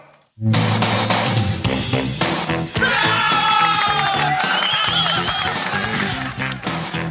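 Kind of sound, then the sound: crowd, loud applause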